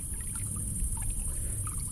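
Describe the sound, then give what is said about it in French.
Swimming pool water in the garden of a small house in a valley, about one metre away, ripples gently, with soft, irregular lapping and small liquid blips over a steady low rumble and a constant high hiss. No one speaks. “Juste devant nous, à un mètre, la piscine fait quelques remous.”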